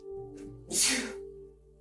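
A single sharp sneeze bursts out, preceded by a brief inhaling breath, with a steady low hum continuing underneath.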